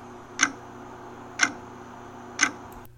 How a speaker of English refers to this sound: Hear that sound? That's the clock ticking on the Ellen DeGeneres show.